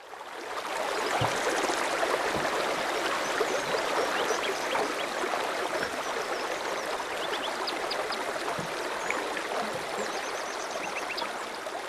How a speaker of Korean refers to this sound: 한적한 강가 강물 흐르는 소리가 들립니다.